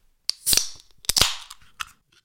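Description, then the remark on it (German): A drink bottle being opened, heard as a quick series of sharp, crisp clicks and snaps, about five bursts over two seconds, fairly loud with no voices. “Für dich mache ich extra dieses Getränk auf.”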